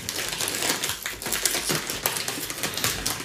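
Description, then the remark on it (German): A white and red bag of paprika crisps being torn open, a dense stream of sharp crinkling and crackling of the packaging lasting several seconds, with no talking. “Jetzt geht's los. Das Opening.”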